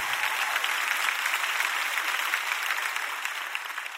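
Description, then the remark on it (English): A large crowd claps steadily throughout, a dense wash of many hands with no individual beats standing out, holding a fairly even loudness before easing slightly at the end, clapping to show they believe they will have greater faith this year. “Come on, clap if you're believing that this year you'll have greater faith”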